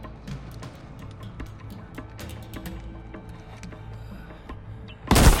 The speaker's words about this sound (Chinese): 张雷用手铐将蔡天明跟车门锁在一起，随后加入了战斗，枪声震天，战况惨烈。